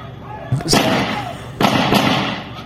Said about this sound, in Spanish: El policía dispara dos veces, el individuo uno y el policía dos.